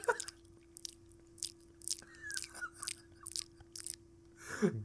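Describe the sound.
A man imitates ASMR eating with his mouth: wet mouth sounds mimic chewing, with a series of sharp crunchy clicks and smacks repeating irregularly over a few seconds, ending in a brief vocal noise.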